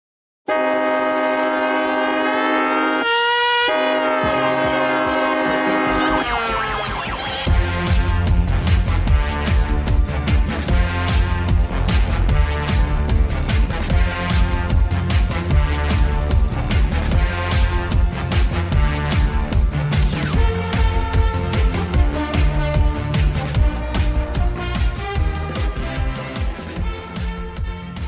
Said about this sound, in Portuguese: E toca a vinheta que tem muito para falar sobre hockey.